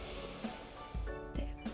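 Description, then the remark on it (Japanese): A person takes a long, deep inhaling sniff, a breathy rushing hiss with a couple of brief catches partway through, demonstrating how they sniff their pet cat with their face pressed into its belly or head. “こうやって吸うんだけど、まあ、すごいねいい匂いなんだよね”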